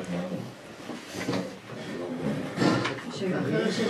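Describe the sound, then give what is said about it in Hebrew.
A chair is dragged and shifted into place for someone to sit on, giving a few scraping, wooden knocks in short bursts while people talk in the background. “בוא נסדר לך פה כיסא.”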